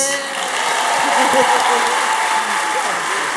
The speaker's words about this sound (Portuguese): Palmas para eles.